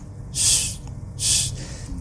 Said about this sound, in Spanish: ronquido de las mascotas